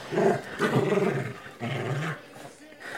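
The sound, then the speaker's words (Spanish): A dog growls and lets out a few rough barks, in two bursts with a short pause between, loud and throaty. “Ah, está enojado, Fausto.”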